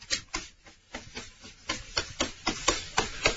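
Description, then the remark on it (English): A person scratches at a door to imitate a big cat demanding to be let into the bathroom: a quick run of about a dozen rough, raspy strokes in a steady rhythm, moderately loud, with no talking. “He will scratch at the door until you let him in.”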